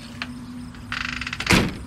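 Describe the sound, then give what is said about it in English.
A screen door is pushed open with a hip, giving a quick metallic rattle, then bangs sharply against its frame. It is fairly loud, with a low steady hum underneath and no voices. “Holding one frosty glass in each hand, I made my way through the living room and pushed open the screen door with my hip.”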